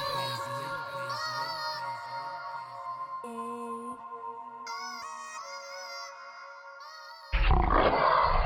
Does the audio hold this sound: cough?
no